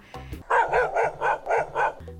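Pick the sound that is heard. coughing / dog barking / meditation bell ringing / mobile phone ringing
dog barking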